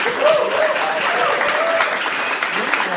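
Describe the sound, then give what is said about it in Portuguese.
An audience applauds together for visiting family members and friends who came by invitation and stand up, a steady wash of many hands clapping, with faint voices murmuring underneath the ongoing applause. “É, e aí, nesse momento, então, eu queria só pedir, assim, os familiares e amigos que vieram, especialmente hoje por convite, só se levanta aí pra gente dar uma salva de palmas pra vocês.”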